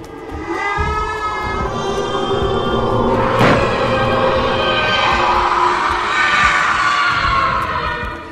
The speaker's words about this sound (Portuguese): Ele vai atrás de você, soltando um grito horrível.